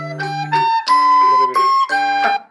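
household object, alarm clock ringing

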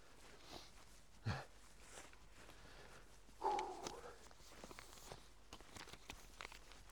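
human body sound, footsteps

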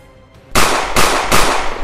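sound effect, gunfire sound effect

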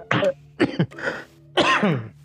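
human body sound, throat clearing and coughing

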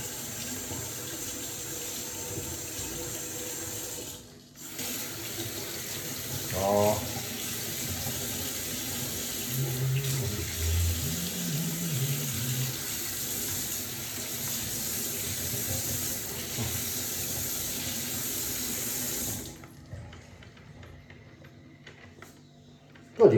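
household object, coffee machine brewing

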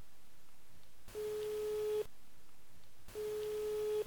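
signal or alarm, telephone ringback tone

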